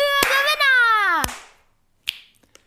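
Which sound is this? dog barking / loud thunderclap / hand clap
hand clap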